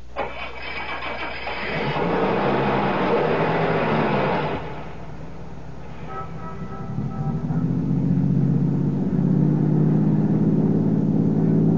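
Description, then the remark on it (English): A car engine cranks and catches with a loud, rough roar, dips briefly, then builds into a steady, rising drone as the car pulls away and accelerates, heading west toward the highway. “Start your car. Head west to the highway and keep going till I tell you to stop.”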